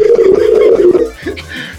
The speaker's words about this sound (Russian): Слушайте, в метро такие же гудки, как и на земле. Все то же самое.